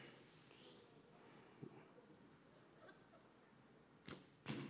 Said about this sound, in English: oh, a little low. First service, first arrow, hit a bullseye. And I drop, I just dropped the arrow.